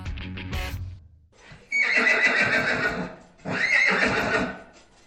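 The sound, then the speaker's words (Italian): Cannella, the youngest filly at Fannestock Ranch in California, whinnies loudly, two long shrill neighs with a brief pause between, preceded by a soft rustle and a few hoof clops. “Questa è la voce di Cannella, la cavallina più giovane del ranch.”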